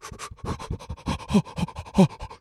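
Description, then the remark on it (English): A person imitates the hyperventilating of someone getting into icy water, with a quick run of short, sharp panting breaths, roughly a dozen in a couple of seconds, fairly loud with no other talk. “Like if you want to do one of those polar bear club things, they get in the water and it's so cold they're like hyperventilating.”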